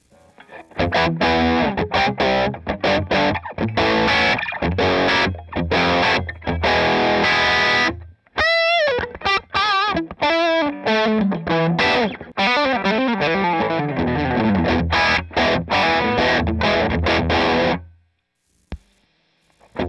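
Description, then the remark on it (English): Distorted electric guitar through an amp and delay pedal: choppy rhythmic chords, then wavering single-note lines with echoing repeats, more chugging chords, and a sudden stop into silence. No talking. “So I'm going to turn that off and then uh, establish the basic tones out of the amp and the guitar, and then we'll uh, we'll travel.”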